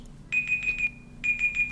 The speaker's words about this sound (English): sorry that was my timer, timer, to wrap up my uh, my initial thoughts, which I did.